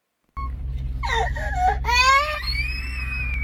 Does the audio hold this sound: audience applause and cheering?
no